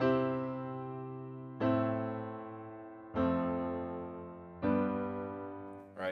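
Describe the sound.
A simple pop chord progression of four sustained, piano-like chords, each struck cleanly about every second and a half and left ringing to fade, followed by a brief spoken word at the end.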